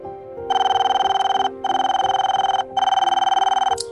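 A telephone rings in three long bursts of rapid, buzzing trills with short gaps between, as an outgoing call is placed to a home phone, loud, with faint voices murmuring underneath.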